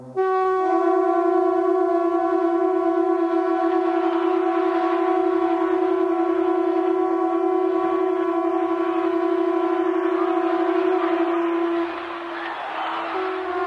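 A conch shell is blown in one long, loud, steady low blast with rich harmonics, sustained for about twelve seconds before fading slightly, with a faint crowd murmur underneath.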